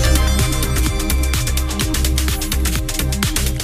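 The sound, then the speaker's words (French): Loud, dense electronic dance music with a steady driving kick drum, pulsing bass and bright hi-hats filling the whole clip, no voices; a set at the opening of Tohu Bohu, the electronic music part of the Festival Radio France, on 17 July. “pour le coup d'envoi de Tohu Bohu, la partie musique électronique du Festival Radio France.”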